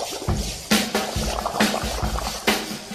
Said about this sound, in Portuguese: o som dos experimentos do laboratório foi feito soprando um canudo dentro de um copo d'água.